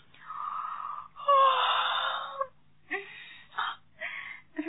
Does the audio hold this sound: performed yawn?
yes